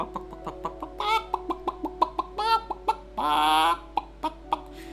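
A chicken clucks in quick, repeated bursts, with a couple of longer drawn-out squawks mixed in, close and fairly loud with no talking.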